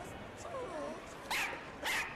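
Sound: dog barking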